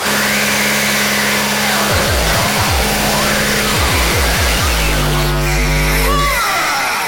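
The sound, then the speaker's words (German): A vacuum cleaner runs loudly and steadily, its motor whine dipping and shifting in pitch several times as the suction strains against something, with a constant rushing airflow throughout. “Staubsauger. Ich merke das richtig, weil der so eine Saugkraft hat, dass der ja alles mitzieht.”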